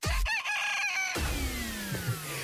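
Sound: rooster crowing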